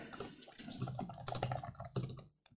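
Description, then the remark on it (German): Rapid computer keyboard typing as a company name is entered into a software form, a quick run of clicky keystrokes with a few louder key hits, stopping briefly near the end before one last tap. No one speaks. “Geben wir mal hier die HSP GmbH ein.”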